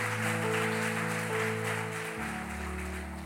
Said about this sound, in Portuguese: Pode aplaudir Jesus.